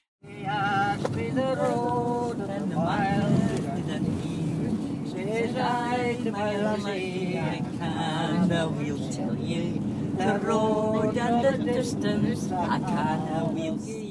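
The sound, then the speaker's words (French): Inside a moving bus on an island in the Outer Hebrides, northwest Scotland: a steady low engine rumble fills the background while several passengers chat, their voices rising and falling over the continuous drone. “Euh, dans un bus sur l'île de Southwest, sur, euh, qui est une île qui fait partie de l'archipel des Hébrides extérieurs dans le nord-ouest du pays.”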